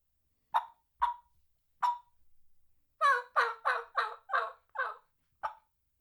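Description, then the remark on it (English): A fall-season turkey call sequence done all on one call, probably imitated, including a kee-kee run, gobbler yelping and purring: three sharp, spaced high whistles, a soft low purr, then a rapid run of six raspy yelps and a final whistle, clear with no talking. “In a fall scenario, you have to hit the Kiki run, you have to hit the gobbler yelping, you have to hit fighting purr, and you have to do old hen assembly.”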